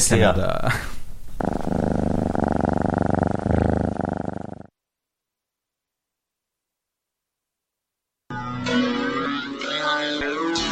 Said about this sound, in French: c'est des rappeurs qui rappent sur les chats, à propos des chats